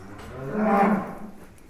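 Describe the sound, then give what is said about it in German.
A single cow moos, a low, drawn-out call that swells in the middle and fades away, heard on its own with no talking; the cows are ruminating and are regularly milked. “Neugierig werden wir von den Kühen beobachtet, die sich beim Wiederkäuen durch uns nicht stören lassen.”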